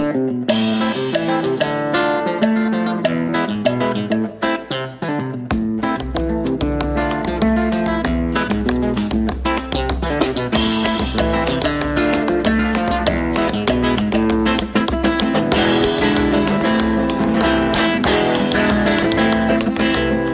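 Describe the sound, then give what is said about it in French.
Strummed guitar driven along by a busy one-man percussion rig, a homemade percussion kit the guitarist wears on his back to accompany himself, with a steady beat and deep bass thumps joining after a few seconds; loud, full and continuous, with no talking. “il s'est bricolé un super kit de percussion pour s'accompagner à la guitare.”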